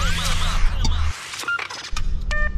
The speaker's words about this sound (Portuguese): Vocês devem estar tá ouvindo aí o barulho do carro de fundo. Mas quando eu chegar na cidadezinha lá, eu vou dar uma encostada, dar uma esta estacionada e aí o som é, vai melhorar um pouco, né?